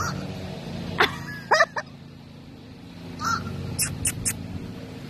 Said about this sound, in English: Well, hello, Crow. I see you. Hi. There's a black crow speaking to me. You hear him? Good afternoon. What you yelling at? What do you see over there?